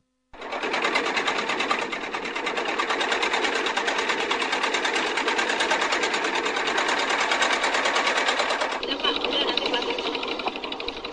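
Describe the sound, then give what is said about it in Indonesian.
A motorboat (kelotok) engine, one of nine boats carrying a Banjarmasin mayoral candidate's procession along the Martapura River from Mantuil, chugs loudly and steadily, with a rapid, even mechanical rhythm that runs without pause and shifts slightly in tone near the end. “Menggunakan 9 perahu motor atau kelotok dan tetap memperhatikan protokol kesehatan, pasangan bakal calon wali kota dan wakil wali kota Banjarmasin Ibnu Sina Aripinur memulai perjalanan dari dermaga Kelurahan Mantuil di Pulau Bromo, Banjarmasin”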